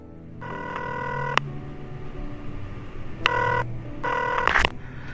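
A telephone rings in three bursts: one long ring, then two shorter ones close together. The bright, buzzing ring sounds over a steady low hum.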